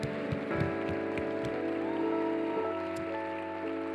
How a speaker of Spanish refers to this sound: Si le vas a aplaudir al Señor, que sea fuerte, como Él se lo merece.